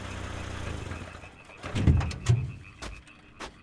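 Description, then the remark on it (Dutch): A low engine rumble idles, then heavier thuds and a few sharp clicks and knocks follow, like a car pulling up and its door being handled. No one speaks. “Oeps, een auto.”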